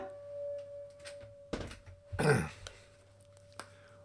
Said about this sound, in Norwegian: Og den pipelyden dere hører, er eh, en støvsuger fra 1975 som holder på ute i gangen på Halne fjellstugu.